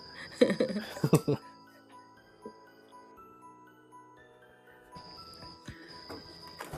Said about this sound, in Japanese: いやいや、あ、あの、鈴虫の声入ってますはい、なんかいい、なんか夏のそうなんですよ夏の音色が聞こえてくるなと思ったのでね、ここから、窓を開け開けてるとね、はい入っちゃうんですよえ、ね。